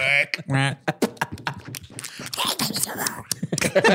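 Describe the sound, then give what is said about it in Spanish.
A voice imitates the slapping, duck-footed footsteps of the demon Belzebub walking: two buzzy, nasal honks, then a rapid, uneven run of clicks, smacks and breathy scuffs, fairly loud. “Así se oye cuando camina Belzebub en tu casa, güey.”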